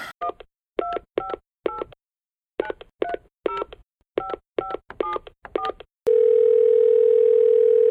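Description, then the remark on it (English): A rapid series of about eleven telephone keypad tones beeps in uneven groups as a phone number is dialed, each a short dual-pitched electronic beep, followed by a steady sustained tone, with no talking. “All right, let me uh, let me go ahead and dial.”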